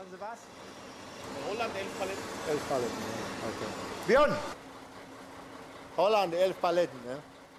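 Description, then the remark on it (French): A truck engine idles with a steady low rumble throughout as the driver arrives to load a shipment for GT World of Beauty, a beauty products distributor, while voices speak intermittently over it, including a couple of louder bursts toward the end. “Le chauffeur du camion a l'air un peu désorienté. Il vient d'arriver pour charger un arrivage de GT World of Beauty.”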